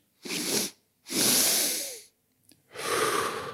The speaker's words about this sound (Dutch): Dan zegt een hele makkelijke manier om dat te doen, is door één keer kort in te ademen en daarachteraan gelijk nog een keertje lang door je neus. Dus je ademt niet uit, alleen maar in.